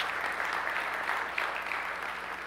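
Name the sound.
audience applause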